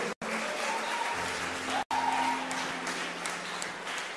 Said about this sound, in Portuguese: Pode aplaudir a palavra de Deus.